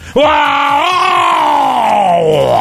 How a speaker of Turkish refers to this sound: Ya bağırma be ya. Bu ne ya?